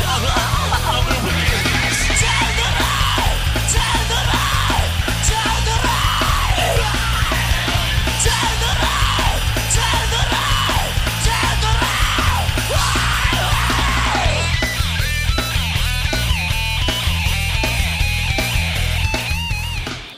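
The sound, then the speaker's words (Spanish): Loud, dense, short 1994 rock song with harsh yelled vocals over a driving beat and heavy guitars, playing continuously at full intensity for about twenty seconds before cutting off. “Es súper buena, es una canción corta, brutal, potente, de 1994.”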